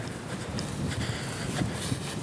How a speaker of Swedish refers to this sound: Det blåser en del, som ni märker.